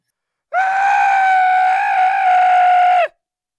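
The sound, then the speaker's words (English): One long, loud, high-pitched scream from a male voice, echoing through a cave, held steady for about two and a half seconds, cutting off abruptly at the end with a slight downward drop. “as he reaches out a finger, he screams a scream so loud it echoes through the cave.”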